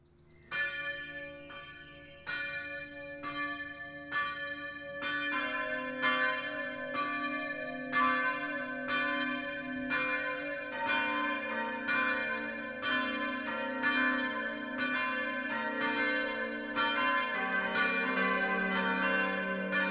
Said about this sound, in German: Es ist 12 Uhr. Das Mittagsläuten kommt heute von der evangelischen Stadtkirche St. Marien im mittelfränkischen Gunzenhausen.